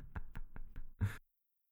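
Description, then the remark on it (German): A mobile phone buzzes against a hard surface in a quick run of four short, evenly spaced rattling pulses, ending in one longer, louder buzz before it goes silent. Fairly clear, with no voices. “Sorry, mein Handy vibriert.”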